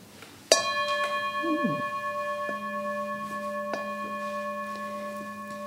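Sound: bell being rung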